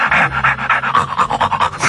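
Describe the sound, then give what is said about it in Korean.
A dog pants heavily and fast, a steady run of rapid, breathy huffs repeating, loud throughout with no talking. “거친 숨소리.”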